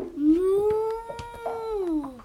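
animal, cow mooing

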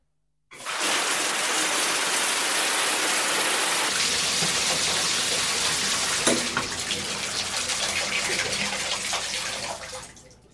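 household object, shower water running

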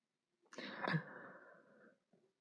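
human body sound, nose blowing

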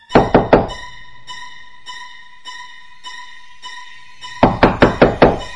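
impact, knocking on a door

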